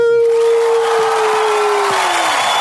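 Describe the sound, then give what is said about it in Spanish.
A burst of dense, steady applause fills a few seconds, with a sustained tone sliding slowly downward beneath the clapping. No one speaks. “Su aplauso, su aplauso.”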